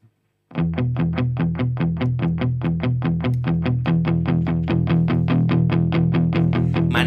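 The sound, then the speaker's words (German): A moped chain that is not tensioned slaps rhythmically against its chain guard as the throttle is opened, a steady fast rattle of about four clacks per second over a loud, gritty low engine drone and vibrating drivetrain, growing slightly stronger toward the end. “Die Kette schlägt gegen den Kettenschutz.”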